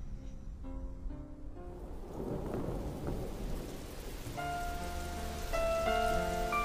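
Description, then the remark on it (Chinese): Steady rain patters on leaves, a dense, even hiss of drops with a low roll of thunder swelling midway, while soft sustained musical tones drift over it. No one speaks. “你有多久没有打开耳朵，细细聆听雨滴打在树叶上的声音？”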